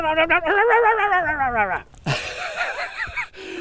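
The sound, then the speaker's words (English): A person's voice imitates a dog, starting with a long, wavering, whiny tone for almost two seconds, then breaking into rougher, gruffer barking-like sounds. “You've just turned into your dog, haven't you?”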